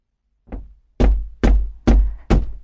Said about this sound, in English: Early the next morning, the fisherman went to the priest's house and knocked on his door.